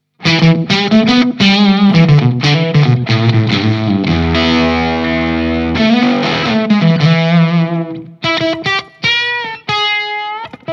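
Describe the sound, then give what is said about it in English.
Electric guitar played at full volume through a Foxrox Captain Coconut octave fuzz pedal, loud and thick with buzzy upper harmonics: quick riffing, a sustained chord held for about two seconds, then choppy stabs and short phrases. No talking. “And now the Foxrox, the Captain Coconut.”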